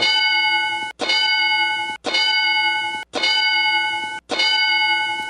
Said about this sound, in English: Oh no, wait, that's the mule shoe sound effect I had queued up. We can play that one for fun.